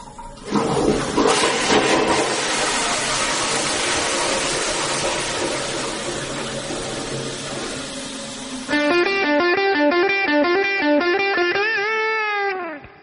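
A proposed audio logo for the recycling process: a loud rushing, flushing water sound for several seconds, then a bright synthesized melody of quick stepping tones that ends on a bending, swooping note.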